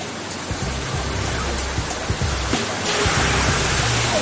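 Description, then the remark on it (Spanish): A loud, steady rush of high-pressure water jets spraying red-hot metal rails as they leave the furnace, to descale them, a dense hissing roar that swells slightly toward the end, with low rumbling underneath and no voices. “Van a recibir chorros de agua a alta presión.”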